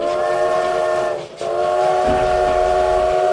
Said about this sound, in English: Out to the west, a train carrying several boxcars roaring forward at 45 miles per hour. Into the west, another train also carrying several boxcars, also rolling forward at 45 miles per hour. Both conductors lay on their whistles.